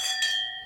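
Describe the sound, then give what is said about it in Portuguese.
Wine glasses clink together in a toast, leaving a bright, high-pitched ringing tone that hangs and slowly fades, with a second light tap in the middle. No one speaks. “Boa, um brinde grande, grande frase, grande frase.”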